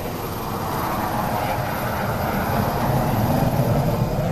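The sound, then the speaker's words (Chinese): A steady, heavy roar of an airplane carrying a donor lung as it takes off from Nanning airport, dense low rumble with a broad hiss on top, building gradually in loudness over a few seconds with no voices. “一颗新鲜的肺源正搭乘飞机从南宁机场滑翔起飞。”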